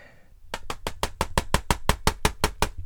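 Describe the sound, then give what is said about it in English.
An imitation of a crow banging on a bathroom window at 5 a.m.: about a dozen sharp, evenly spaced knocks in a quick steady rhythm, fairly loud, after a brief quiet start. “there's a crow banging on the window”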